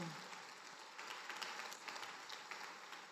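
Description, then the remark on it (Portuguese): Sustained applause from a group, a dense steady patter of many hands clapping at an even level for a few seconds, with no voices standing out. “Eu quero dizer, se você é uma dessas mães que tem cuidado dos seus filhos, da sua casa, que tem colocado o seu coração e a sua vida nesse serviço de cuidar sozinha da sua casa, você merece uma forte salva de palmas.”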